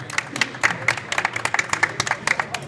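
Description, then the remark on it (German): A live audience at the Studioszene 2023 event applauds, with many hands clapping in a dense, steady patter that holds at an even, fairly loud level throughout. No one speaks over it. “Ihr seid erstmal schön Applaus für euch.”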